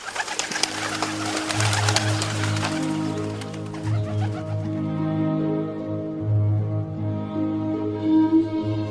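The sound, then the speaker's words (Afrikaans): A ringed pigeon sitting at the glass door of an outside porch coos in low, throaty, rolling phrases, repeated steadily throughout, with a burst of rustling or fluttering noise at the start. “En wragtig, daar sit duif en gee my 'n kyk Ek is honger, maak oop.”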